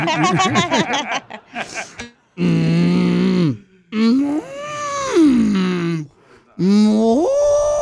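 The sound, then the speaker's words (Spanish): Someone imitates a cow, letting out three long, low, droning moos with wavering, sliding pitch, after a quick burst of chattering, laugh-like vocal sounds at the start. “No, yo sí la puedo hacer, mira, la, hago de vaca.”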